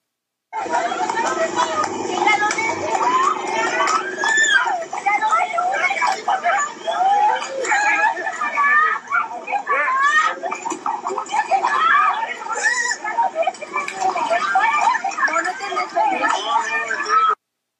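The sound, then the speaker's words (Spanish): Several women scream and shout over one another for men beating young men to stop, in a tense, chaotic crowd in the State of Mexico, their high, strained voices loud and continuous against a background of agitated street commotion. “En las imágenes se observa cómo los hombres golpean a los chicos, cómo varias mujeres gritan para que pare la agresión y cómo el que graba no hace nada.”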